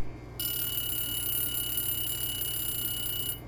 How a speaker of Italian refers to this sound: Il timer, impostato a tre minuti, dà il suo responso.